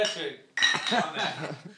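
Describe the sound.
Glasses clink together in a toast, several bright ringing taps overlapping with murmured voices and light laughter.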